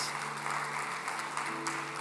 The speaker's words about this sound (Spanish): ¿Están conmigo? Aplaude si eso es una buena enseñanza.